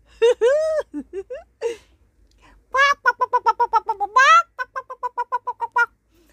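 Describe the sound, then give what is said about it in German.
Chickens cluck and cackle, a few drawn-out calls followed by a rapid, rhythmic run of short staccato clucks, apparently a human voice imitating the hens' laughter. “Die Hühner lachten und ich muss zugeben, den Witz fand ich auch ganz lustig.”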